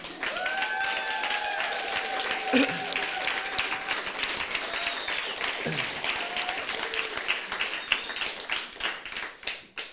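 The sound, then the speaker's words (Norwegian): Loud, sustained applause from a large audience fills the whole stretch, dense clapping with scattered whoops and cheers rising above it, a few shouted voices briefly standing out. “Så jeg, jeg syns rett og slett at vi kan starte med en sånn skikkelig Og her er det lov å lage lyd i tillegg, altså.”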